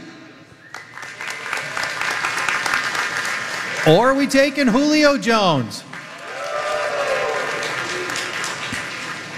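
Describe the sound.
A large crowd applauds and cheers steadily through the whole stretch, a dense wash of clapping that swells briefly while a man's voice speaks over it in the middle.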